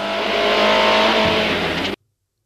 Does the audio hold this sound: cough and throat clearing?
no